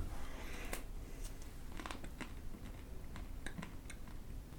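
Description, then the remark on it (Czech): Someone eating: wet chewing with irregular lip smacks and small clicks, repeating unevenly over a steady low background hum, no voices. “Já odmítám, dokud budeš tady takhle tady dělat mm a mlaskat, já odmítám pokračovat podcastu.”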